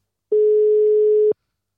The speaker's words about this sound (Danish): ja, det, mens, øh, mens den ringer op, så er det spændende.